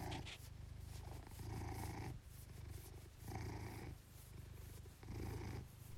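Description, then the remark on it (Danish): The speaker's own domestic cat purring, a steady low rumble that swells and eases in a regular rhythm of inhales and exhales, with no talking. “Det her er lyden af min kat, der spinder.”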